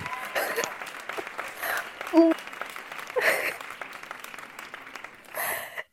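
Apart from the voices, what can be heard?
applause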